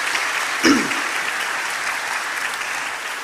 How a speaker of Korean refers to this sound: 군데군데 이제 청년들이 앉아 있는데 우리 환영의 박수 또 격려의 박수. 네.